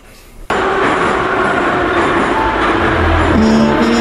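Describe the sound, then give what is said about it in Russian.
A metro train roars through a tunnel toward the terminal station, starting abruptly after a brief quiet moment and holding a loud, steady rumble, with a rising electric motor whine near the end. No voices. “Станция конечная. Поезд дальше не идет.”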